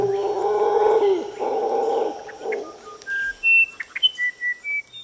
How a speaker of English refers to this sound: The musician Wren. Oh, that's just beautiful, that is. The musician Wren is a performer on its own. It has its own plinth basically in the forest.